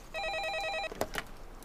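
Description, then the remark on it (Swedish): A telephone rings with a rapid warbling electronic trill for under a second, fairly clear, then stops abruptly, followed by brief clattering handling noises. “Då skulle jag säkert slippa ta telefonsamtal i alla fall.”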